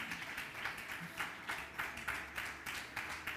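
An audience applauds with steady, fairly even clapping that pulses in a loose rhythm, soft in level and continuing throughout without any voices over it.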